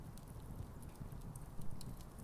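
Horse hooves clip-clop steadily, a soft rhythmic patter of steps over a low rumbling background with no voices.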